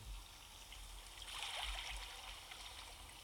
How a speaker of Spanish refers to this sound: ¿Este? Este, mira, sonido océano, mira.